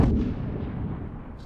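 A tank cannon shot heard from long distance, the separate long-range sound-design content for the shot: one deep, muffled boom at the start, then a long low rumble that rolls on and slowly fades, with no voices.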